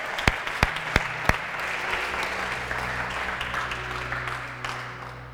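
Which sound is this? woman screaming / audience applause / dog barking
audience applause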